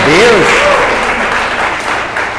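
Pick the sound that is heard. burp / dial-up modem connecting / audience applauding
audience applauding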